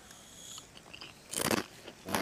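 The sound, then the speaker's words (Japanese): A sharp crunchy bite into a crisp, fragrant roasted snack, followed by a few loud crackling chews and a second crunch at the end, with no talking. “おおいい音するうんめっちゃ香ばしい香ばしいうん美味しい”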